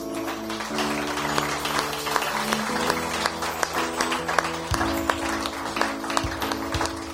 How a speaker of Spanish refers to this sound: un aplauso al Altísimo.